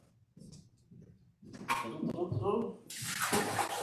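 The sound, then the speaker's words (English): Faint muffled murmuring, then water is poured out into a sink, splashing at first and swelling into a loud, steady rushing gush that carries on to the end. “That's gonna go right over here. I'm gonna pour this out, I'll be right back.”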